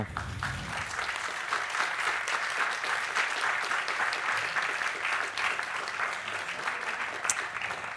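An audience claps steadily for the speakers at the end of a talk, a dense, even wash of many hands with no talking over it, holding a constant level throughout.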